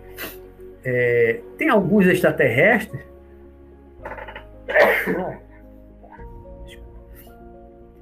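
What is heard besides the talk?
sneeze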